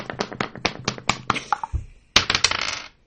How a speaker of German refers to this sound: Das war ein Würfel. Und es war ein vierseitiger.